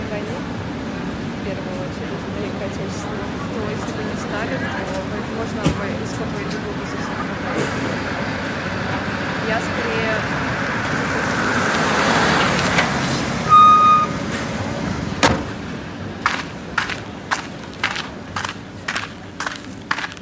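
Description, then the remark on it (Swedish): A busy street in Saint Petersburg, Russia, hums with heavy traffic and passing engines, a large vehicle swelling, then a tone and a run of sharp rhythmic clicks or beeps over the steady urban roar. “Hon parkerade bilen och klev ut på den bullriga gatan i Sankt Petersburg i Ryssland.”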